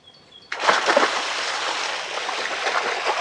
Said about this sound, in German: Mit lautem Geplatsche landet Max in einem Fluss.